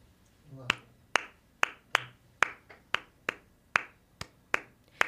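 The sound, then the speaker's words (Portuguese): A dozen or so sharp hand claps in a steady, even rhythm, each one crisp and quickly fading before the next. “Tá pegando a palminha?”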